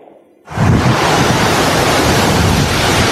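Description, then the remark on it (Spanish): After a brief quiet moment, a loud, steady roar of the rushing Mogoticos river in the Monas sector near San Gil kicks in and holds constant, a dense wash of churning noise with no voices. “Estamos en el sector de Monas, eh, sobre el río Mogoticos, el lugar por excelencia para el turismo de Sandín y la región este río y este sector está en peligro si dejamos avanzar el proyecto de la hidroeléctrica Renacer sobre el río Mogoticos.”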